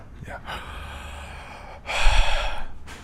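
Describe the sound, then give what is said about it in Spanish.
Deep, forceful breathing done on instruction: a long airy inhale followed by a louder, harsher exhale that swells into the microphone, then another breath begins. No talking, just heavy rhythmic breaths. “Comience a respirar.”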